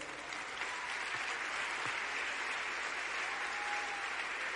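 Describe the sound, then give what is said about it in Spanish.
An audience breaks into sustained applause for the Lord, a dense, steady wash of many hands clapping together at even loudness for several seconds, with no one speaking over it. “Denle un aplauso al Señor.”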